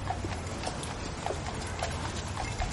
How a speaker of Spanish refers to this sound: Y ese sonido que escuchas es el de los carros que llevan todo tipo de mercancías. Llevan herramientas, llevan arena y piedras para la construcción, llevan sacos de cereales, llevan ánforas, frutas, maderas, que hasta llevan animales algunas veces.